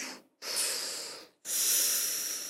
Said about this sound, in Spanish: Entonces vamos a exhalar totalmente. Exhala. Y inhala acá. Es como que salga, la mano así.